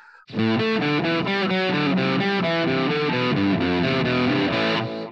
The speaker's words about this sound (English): He's in his 30s now, but I asked him to play some of the riffs for me, so I'll drop them in here so mm-hmm. people can hear them.